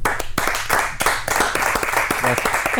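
Sustained audience applause welcoming two guests, a dense, steady wash of many hands clapping at a fairly loud, even level, with faint voices mixed in underneath.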